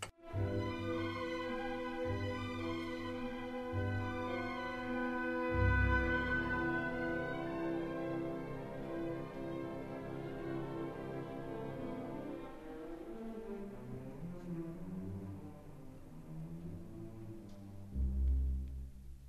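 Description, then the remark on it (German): The MDR Symphony Orchestra plays the second movement of Mahler's First Symphony, a slow movement with rich sustained chords and heavy low-register accents. The sound is full and loud, then thins toward the end. No one speaks. “Der zweite Satz aus Mahlers erster Sinfonie mit dem MDR Sinfonieorchester am Sonntag live zu hören bei den Thüringer Bach-Wochen im Theater Erfurt, dann mit Brad Lubman am Pult.”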